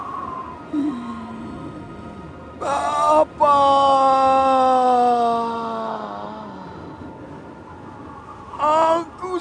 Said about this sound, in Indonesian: Lalu Yesus berseru dengan suara keras,